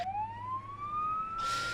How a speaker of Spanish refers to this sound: Y nos ocupamos ahora de la enfermería. Ese sonido de ambulancias nos da entrada a este capítulo sangriento